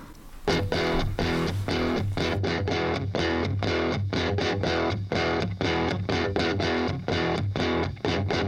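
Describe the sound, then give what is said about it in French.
A snippet of a song plays: loud, distorted, guitar-heavy music with a steady driving beat and dense layered chords, running continuously with no talking over it. “On va de nouveau écouter quelques notes de musique”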